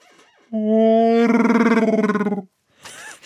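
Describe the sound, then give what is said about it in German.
A person vocally imitates Chewbacca, the Star Wars Wookiee, with a growling roar: one loud, sustained call, held steady at first and then breaking into a rapid, rattling warble for about two seconds, followed by brief breathy noise. “was sie nicht über dich wissen, die meisten Hörer dieses Podcasts, ähm, du kannst Chewbacca nachmachen.”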